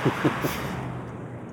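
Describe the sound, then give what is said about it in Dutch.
Steady, muffled drone of the engine and road noise heard from inside Johan's moving car as it drives to a farm, a constant low rumble with a few brief bumps near the start. “We rijden in de auto van Johan naar een boerderij.”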